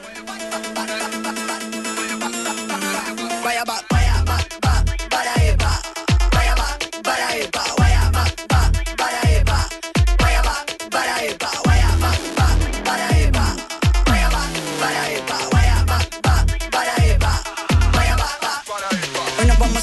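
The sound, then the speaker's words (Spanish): An electronic cumbia track plays at full volume, opening with a sustained synth intro before a steady, bouncy bass-and-percussion groove kicks in with bright melodic synth lines; no one talks over it. “es, medio, este ya es medio electrónico, medio una cumbia con electrónica tiki tiki”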